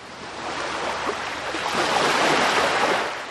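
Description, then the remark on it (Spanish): Ocean waves wash onto a sandy shore in a steady, hissing roar that swells louder toward the end as a wave breaks and spreads. No voices are heard. “Diminutos destellos de luz se revuelven con cada ola que rompen la arena.”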